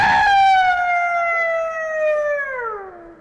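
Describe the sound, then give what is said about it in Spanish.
A dog on a distant farm gives a long, mournful, anguished howl, one sustained wavering tone that holds high and then slides steadily downward in pitch before fading out, with no voices over it. “era un lamento angustioso, prolongado, como de miedo”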